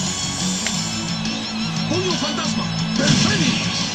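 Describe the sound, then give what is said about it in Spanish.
A heavy punch impact from a fighting video game, the Phantom Fist of the Phoenix special attack landing on an opponent, crashes through a dense, busy mix of game sound, with shout-like vocal tones rising over it toward the end. “Ahí se escucha donde le pegué.”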